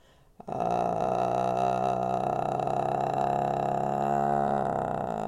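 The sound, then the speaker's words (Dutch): A person makes a sustained low, croaky, frog-like vocal fry sound as a voice exercise, holding it steadily for about five seconds, fairly loud, with no speech. “kikker nog heel even.”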